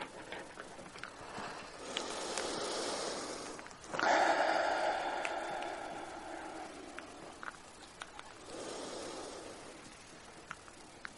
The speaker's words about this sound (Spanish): Y vais a respirar tres veces profundamente, inhalando por la nariz y exhalando por la boca.